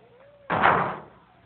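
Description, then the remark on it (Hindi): The heavy door of the ark slams shut once with an abrupt, loud bang that rings out and fades over about half a second, with no one speaking. “सोच लियो दरवाजा किश्ते बंद कर सी”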